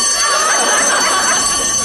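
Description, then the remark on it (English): A fire bell rings loudly and continuously, a harsh metallic clang that holds steady without pause for the full two seconds, filling the sound. “Now, here's the fire bell, right? It's a completely different sound.”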